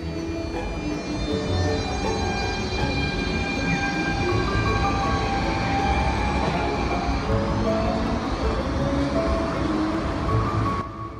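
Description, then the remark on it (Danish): A Copenhagen S-train commuter train rumbles steadily along the rails for the whole stretch, loud, with high metallic wheel squeals and whining tones riding over the heavy low roar. “det også var i 2005, at det blev forbudt at ryge i de københavnske S-tog.”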